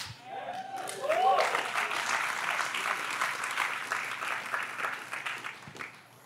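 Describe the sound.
Thin applause from a small church audience with few people present, a few hands clapping steadily at moderate volume for about five seconds before tapering off, with a brief voice sounding just before it starts.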